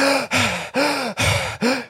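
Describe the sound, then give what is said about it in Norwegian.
Someone breathes hard and fast, five forceful, rhythmic breaths in under two seconds, loud with a raspy, slightly voiced edge: deliberate hyperventilation done as part of the Wim Hof breathing method. “Eh, men nei, det var den der hyperventileringa først som jeg gruer meg mest til.”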